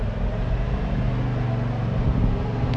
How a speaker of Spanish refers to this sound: Ahí mira la pinche máquina podadora, güey.